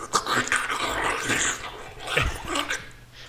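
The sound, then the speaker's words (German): Someone imitates a vacuum cleaner with a rough, rasping, growl-like noise that rises and falls in waves, with no ordinary talking. “hast das gerade sehr gut nachgeahmt.”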